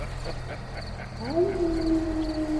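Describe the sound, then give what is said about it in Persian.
A long wolf-like howl rises partway through and holds steady, drawn-out and fairly clear, over a low background hum, with no one talking. “ولی انگاری گرگن ها گرگن”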